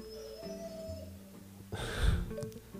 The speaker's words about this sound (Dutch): Op de achtergrond horen we oh, die onze hond. Ja, een onze hond, het, die eh, vindt er ook wat van.